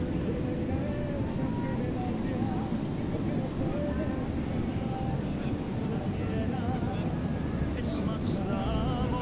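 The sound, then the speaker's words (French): A steady, low roar of waves breaking in the distance, washing on without pause, with murmuring voices and chatter blended into the constant rumble. “Les vendeurs de glace, et les vagues qui se brisent au loin.”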